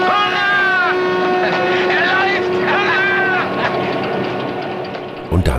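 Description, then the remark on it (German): A propeller aircraft engine being started in Robert Aldrich's film The Flight of the Phoenix, on a plane pieced together from the wreckage of a crash-landed aircraft, drones loudly and steadily, with a constant hum and wavering, whining overtones rising and falling above it, ending in a few sharp knocks. “So wie der Motor gezündet hat, drosseln Sie etwas. Zu viel unnötige Vibration könnte das Flugzeug zertrümmern.”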